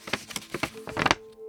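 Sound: flipping through notebook pages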